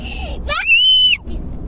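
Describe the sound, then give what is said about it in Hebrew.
A child lets out a shrill, high-pitched scream lasting about half a second during a bedtime story, rising sharply then holding steady before cutting off, with faint background voices around it. “זה, סליחה, זה סיפור שאמור להרדים ילדים, לא לצעוק.”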